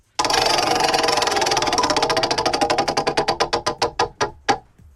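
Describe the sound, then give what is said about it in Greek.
A game show prize wheel is spun to pick a contestant's letter, giving a rapid stream of ticking clicks that gradually slow and spread apart until the last few distinct ticks stop, heard on its own with no talking. “Λοιπόν, γυρνάω το τροχό, ακού το γράμμα σου, λέω την κατηγορία και ξεκινάει το χρονόμετρο με τα 20 δευτερόλεπτα.”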